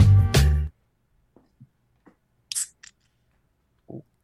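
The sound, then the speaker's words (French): Michelob Ultra light beer cans being opened: a loud, sharp metallic crack, then scattered quiet clicks and a couple of short fizzy hisses, with no talking. “Il fait 32 degrés puis qu'il entend des bières ouvrir dans le même astuce qui doit vous haïr.”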